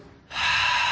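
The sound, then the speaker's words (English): A single deep, forceful exhale through the mouth, breathy and loud, starting after a brief quiet moment and sustained to the end, with no talking. “Remember that Sabbath means rest, and the Hebrew word has this idea of exhaling.”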